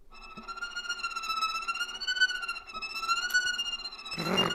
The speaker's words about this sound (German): Hey, aber auf der Bratsche kann man auch lustige Geräusche machen, zum Beispiel Frost.